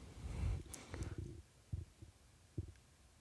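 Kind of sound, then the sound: human body sound, heartbeat pulse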